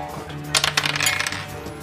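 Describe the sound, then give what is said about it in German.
Dice are rolled on a table: a quick flurry of hard clicking and rattling, lasting about a second against a faint background hum. “Dann würfel mal.”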